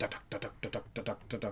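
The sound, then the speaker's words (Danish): A voice imitates a misfiring jeep engine with slightly wrong ignition timing, rapidly repeating a clipped, percussive syllable about eight times in a steady, chugging rhythm, fairly loud. “Ja, ah, den står lidt forkert i tændingen, tror jeg.”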